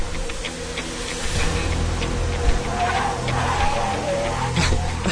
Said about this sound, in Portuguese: O carro chegou.